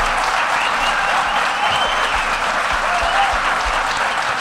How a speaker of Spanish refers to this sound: Un aplauso. enorme para ellos.